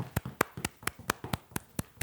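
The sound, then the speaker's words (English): Steady rhythmic clapping, about eight sharp claps in two seconds at an even, fairly quick tempo, like people clapping along to a beat. No one talks. “if you're in your car right now, just put it onto cruise control and Clap along clap with, with your feet or something. Clap with your feet. Keep clapping”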